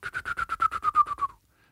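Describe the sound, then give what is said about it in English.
A voice imitates a wood duck's whistle: a quick run of about eleven short, squeaky whistled notes, fairly loud, slowly dropping in pitch before stopping abruptly. “No, it was probably a wood duck actually.”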